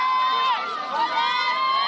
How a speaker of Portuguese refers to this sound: Chega agora a ambulância escoltada aqui no norte da Tailândia por aplauso desses moradores que estão vibrando tanto com essa notícia, assim como o mundo inteiro